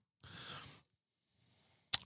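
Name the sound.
papers being handled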